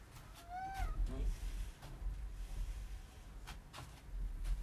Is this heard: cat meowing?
yes